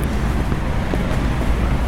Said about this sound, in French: Vous trouvez, ici c'était une rue piétonne. On pouvait courir, danser, sauter. Et eh bien maintenant, regardez, c'est de nouveau ouvert à la circulation.